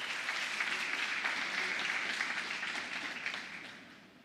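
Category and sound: crowd, church audience applauding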